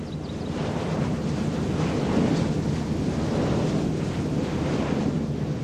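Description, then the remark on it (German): A wind turbine in Wildpolzried, one of four there, standing in a forest on the edge of a slope, turning in gusty wind, heard as a steady, loud rushing roar with a low rumble and a faint, slow whooshing pulse underneath. No one speaks. “Ja, hier ist eine unserer Windmühlen. Wir haben in Wildpolzried vier Stück davon.”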